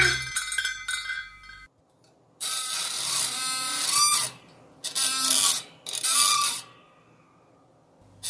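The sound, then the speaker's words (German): A metal spring squeaks and grinds in several strained bursts, harsh, with short pauses between strokes and a brief tonal squeal at the start. “Diese Episode enthält Soundeffekte von freesound.org: Spring metal grind_squeak.mp3”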